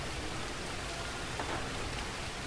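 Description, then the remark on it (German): Steady heavy rain pattering densely on leaves and the forest floor, a constant hiss of countless drops with no voices and no pauses. “Dann beginnt er wie ein tausendjähriger Regen und tausend Regentropfen prasseln auf Blätter und den Waldboden.”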